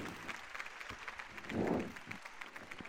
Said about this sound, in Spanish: Bueno, o rei Urco, aplausos.